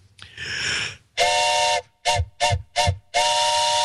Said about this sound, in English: he wants a train whistle for Can- Canada's 145th anniversary.